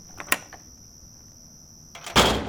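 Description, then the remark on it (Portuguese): A basement door of a house opens: a sharp click, then a thin, steady high-pitched creak, ending in a loud, heavy scraping thud. No one speaks. “Vamos entrar pela porta do porão.”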